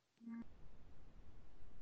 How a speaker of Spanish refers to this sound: Ahora con, la tecnología, mi alarma empezó a sonar.